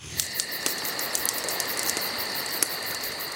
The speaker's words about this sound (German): Ist das ein Lagerfeuer? Ja. Ich weiß auch nicht, warum ich hier immer drauf drücke. Also. Es klingt aber auch, als ob einer in den Grill pinkelt.